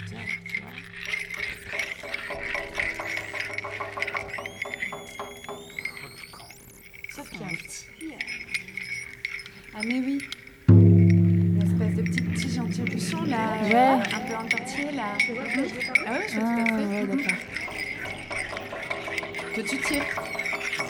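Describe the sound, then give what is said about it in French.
A drink can being handled, with repeated light metallic clinks and rattles throughout, and people talking underneath and over it in the second half. “Ça ressemble à une canette, genre distribuée”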